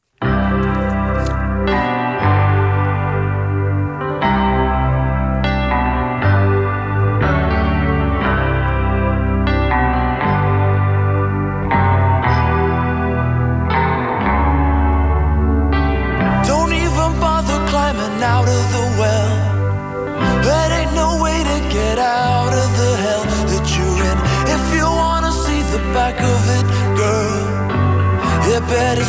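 A pop duet song plays loud and steady, driven by a pulsing, rhythmic bass line; about halfway through, the arrangement grows fuller and brighter as more instruments join.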